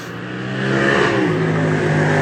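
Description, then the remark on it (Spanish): A motorcycle engine roars past, its pitch climbing as it accelerates, loud and steady for a couple of seconds with no voices over it. “ahí pasó una motocicleta.”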